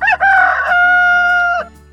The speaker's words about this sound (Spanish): y un gallo